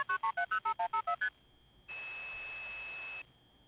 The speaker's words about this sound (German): Was glaubst du, wozu wir die Bluebox erfunden haben? Jobs hebt die Bluebox an das Telefon und drückt einige Tasten.